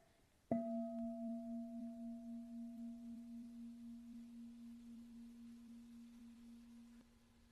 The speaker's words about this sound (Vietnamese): bây giờ mời các em nghe một tiếng chuông nha để rồi chúng ta chia sẻ tiếp